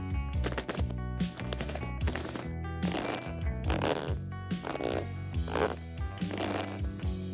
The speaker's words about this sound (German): Dieses Mal haben wir keine Schritte mit der Hand imitiert, sondern mit der flachen Hand auf dem Leder rumgeknarzt. Wenn man das nun alleine abspielt, klingt das ein bisschen komisch.